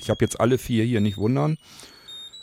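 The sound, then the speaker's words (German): A man speaks German while a radio item-finder tag named Mobil 1, made to ring by a double tap on a screen, rings with faint, high-pitched electronic tones. The thin ringing continues softly once his voice stops. “Zack, fertig. Und das Ding klingelt.”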